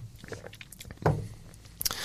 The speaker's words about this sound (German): Ne, nehmen Sie ruhig einen Schluck ich Wasser. Einen Schluck Wasser, die Stimme versagt langsam.